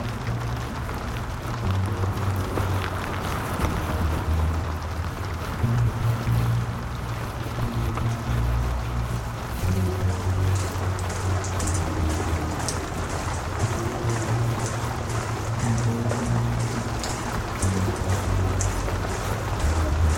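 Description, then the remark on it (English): Steady rain patters continuously outdoors by a road, with a low droning rumble of engine noise underneath that swells and fades like passing traffic. No one speaks. “Waterproof trousers, a cap so the rain doesn't get in my eyes, waterproof shoes, gloves, waterproof cover even to go on the rucksack.”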